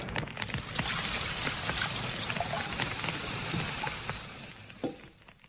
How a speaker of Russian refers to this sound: Сержант, ведро воды на солому, пожалуйста.